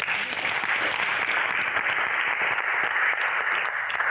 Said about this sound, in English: So uh, thank you very much. Can you give a big round of applause?